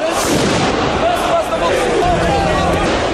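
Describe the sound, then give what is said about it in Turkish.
Dense, continuous crackle of fireworks bursting amid a noisy crowd, with loud pops and booms layered over shouting and street commotion, as far-right demonstrators attack the Russian Embassy with fireworks at night. “Gece saatlerinde Rusya Büyükelçiliği'nin önüne gelen aşırı sağcı göstericiler havai fişeklerle saldırı düzenledi.”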